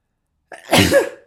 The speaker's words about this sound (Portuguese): E acho que vou espirrar.